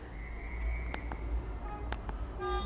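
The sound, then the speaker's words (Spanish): Steady low rumble of street traffic drifting into an office from outside, fairly faint in the background, with a few sharp knocks and a brief tonal honk-like sound near the end; no one speaks. “Ya empieza a no ir un poquito de tráfico en mi oficina. Se escucha de fondo, ¿verdad?”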